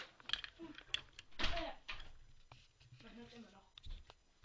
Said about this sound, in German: Die Tür zu.